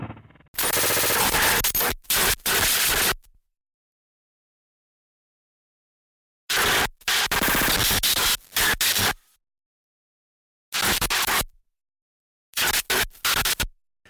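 A harsh, noisy music track from a guest artist's new record plays on the show Špína on Rádio Wave, in loud bursts of crackling, static-like roar, cutting out abruptly into stretches of silence before blasting back in. No voices.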